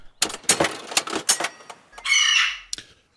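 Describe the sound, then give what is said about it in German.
A joke vending machine (Witzeautomat) dispenses a ticket: a quick run of sharp mechanical clicks and clacks, then a brief bright whirring buzz as the ticket feeds out, ending on a single click. “Dann ziehe ich mir ein Ticket.”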